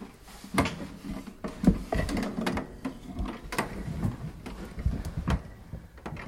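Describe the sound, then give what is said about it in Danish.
A wooden loft ladder creaks and knocks as someone climbs up into a loft room while holding a tape recorder and a microphone, with irregular clunks and groans at each step, moderately loud, and no talking. “Okay, så kravler vi op.”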